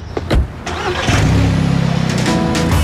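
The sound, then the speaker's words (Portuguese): A car engine cranks briefly with a few sharp turns of the starter, then catches and settles into a steady, rumbling idle, loud with no voices. “Bora, vamos dar um rolé.”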